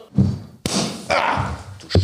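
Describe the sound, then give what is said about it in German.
A sparkling wine bottle is opened for New Year, popping with one sharp, loud burst, followed by a rush of hissing foam bubbling over and a couple of dull thumps. “Ich, ich mach mal auf jetzt, ich mache mal auf. Ja, Schuss.”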